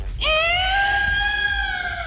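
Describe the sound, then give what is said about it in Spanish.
A cat lets out one long, loud yowl, a high wailing cry that swells quickly and then holds steady with a slight downward sag for nearly two seconds over a low background rumble. “Es un gato, pero no hidráulico.”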